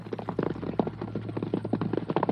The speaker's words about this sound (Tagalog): Maya-maya ay may narinig naman akong kabayo na umiikot sa bakuran namin.